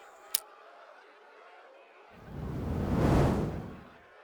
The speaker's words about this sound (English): The kindling ignited in one big whoosh, so hot that even where I stood in the distance, the scorching air blew past us and dried up all my sweat.